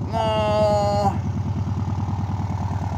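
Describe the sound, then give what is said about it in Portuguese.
A buggy, stopped in front of the camera, revs its engine with a loud, high harmonic whine for about a second, then drops into a steady, throbbing low idle with a fast regular chug. “Deixa ele dar uma acelerada aí para todo mundo ver a cara dele.”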